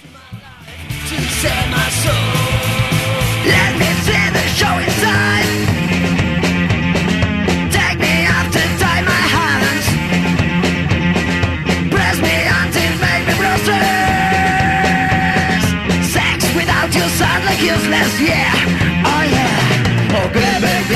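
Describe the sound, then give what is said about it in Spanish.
A loud, dense garage punk song from a band's latest EP plays without pause, with a driving full-band wall of distorted guitars and drums and a raw, shouting vocal on top. “Lo tenemos en puerta, vamos con la música y venimos con lo que nos queda para el resto de la noche.”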